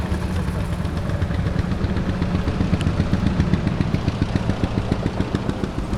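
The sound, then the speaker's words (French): The engine of a red Peugeot 403 commerciale runs steadily, heard from inside the car: a dense, low rumble with a fast, even mechanical ticking pulsing through it, fairly loud and continuous, with no voices. “Là, on est dans une 403 commerciale.”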